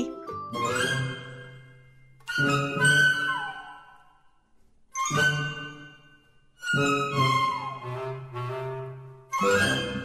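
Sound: school bell ringing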